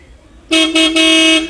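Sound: car horn honking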